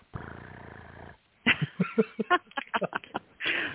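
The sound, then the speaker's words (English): A voice imitates a cat's purr with a sustained, low rumbling buzz lasting about a second, followed by a quick series of short breathy, throaty bursts and a final raspy rumble, fairly loud. “I'm just going to make purring noises here.”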